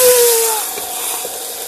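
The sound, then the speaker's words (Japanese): A loud burst of hissing steam as hot water is poured into a sizzling skillet of frying gyoza to steam them, a broad rushing noise that slowly eases, with a brief high whistling tone at the start. “聞こえましたでしょうか今、お湯を入れたところですね。”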